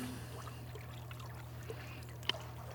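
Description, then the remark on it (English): Quiet warm bath water sloshing and swirling gently as two bodies float and move against each other, over a low steady hum, with soft trickles throughout and one brief sharper splash near the end. “the water hmm. swirls as our bodies float and writhe against each other.”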